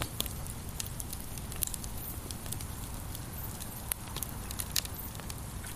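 A campfire crackles steadily, with irregular sharp pops and snaps over a low, constant rumble of burning, with no voices.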